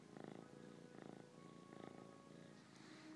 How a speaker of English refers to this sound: Oh, well, you can hear her purring.